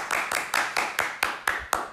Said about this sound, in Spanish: Un aplauso otra vez.